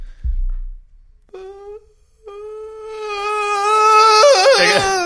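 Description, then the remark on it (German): A voice imitates whale song: a brief low thump, then a short hummed tone, followed by a long, rising, sustained moan that wobbles and warbles toward the end, fairly loud. “Hast du, hast du eine äh, Vorstellung davon, wie Walgesänge klingen? Nee, aber ich mach's mal kurz nach, wie ich mir vorstelle.”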